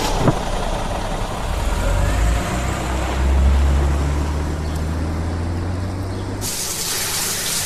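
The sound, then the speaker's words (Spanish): A low engine-like rumble with steady background noise, then near the end a shower at home suddenly starts running, a loud, bright hiss of spraying water. “en su casa se ducha, apoya la cabeza en la pared, piensa.”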